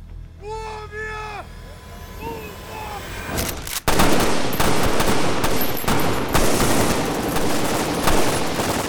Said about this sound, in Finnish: Hetkessä ensimmäiset vain valojuovia sisältävät lippaat on ammuttu taivaan tuuliin.